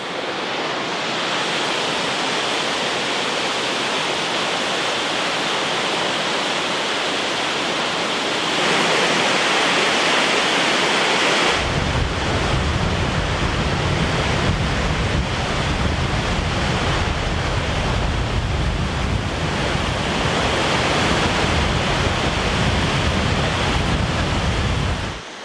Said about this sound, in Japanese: 目覚めのいいね今朝は富山の名瀑称明滝の豪快な音色